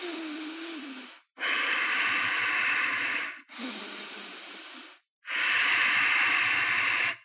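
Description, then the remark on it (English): Slow, loud nasal breathing paced at three seconds in and three seconds out. Long hissing inhales and exhales alternate steadily, about four breaths in all, with short pauses between and no talking. “you're going at a really steep clip and you're still keeping that 3 3 nasal breath”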